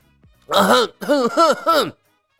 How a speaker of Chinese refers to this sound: 玉清殿里一阵清嗓子的声音，不说喝水还好，提起喝水。所有人都觉得自己的嗓子干得像是要喷出火来了